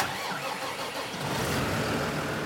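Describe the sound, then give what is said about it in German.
A huge tractor with a seed drill attached starts up in a machinery shed as a farmer prepares it at the end of March: the engine cranks and catches, its low rumble swelling louder and steadier after a moment, with a rough, diesel-like roar and no voices. “An diesem riesigen Traktor hängt die Sämaschine dran, die er jetzt nach oben klappt, um damit aus der Maschinenhalle zu fahren.”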